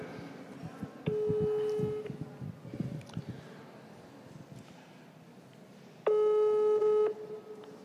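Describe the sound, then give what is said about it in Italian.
A telephone ringback tone sounds twice while a call is being placed from the Palazzo Ducale in Genoa, each steady tone lasting about a second with a long pause between, heard over faint background murmur. “Io ora eh, mi collego con lui telefonicamente, quindi vi...”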